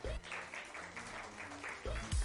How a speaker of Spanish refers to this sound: Y les voy a pedir, por favor, que le den un aplauso, por favor, con nosotros, una niña que es todo menos corazón.